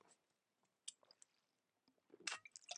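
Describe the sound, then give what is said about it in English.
Someone takes a sip of cola, with quiet wet slurping and mouth clicks, a brief pause, then a louder burst of gulping and swallowing. No one speaks. “wait a second. Uh, sip of uh, Audi's brain cola. Just a minute.”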